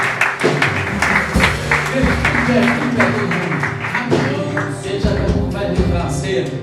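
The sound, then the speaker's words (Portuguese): A church audience breaks into steady, dense applause for Jesus after a prayer, many hands clapping at once in a continuous patter, with voices calling and singing out over the clapping throughout. “Glória a Deus, aplausos Jesus.”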